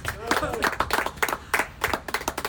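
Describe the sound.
A small audience claps steadily for a few seconds, a dense patter of hands at moderate volume, with a brief voice or cheer mixed in near the start.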